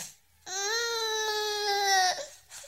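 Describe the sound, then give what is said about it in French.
In a dramatized scene of the birth of the future king Henri to Jeanne d'Albret, queen of Navarre, at the Château de Pau in December 1553, a newborn baby lets out one long, sustained wail lasting well over a second, high and strained with a slightly falling pitch, then breaks off into a short whimper. No one speaks. “Dans la nuit du 12 au 13 décembre 1553, Jeanne d'Albret, la reine de Navarre, donne naissance à un garçon.”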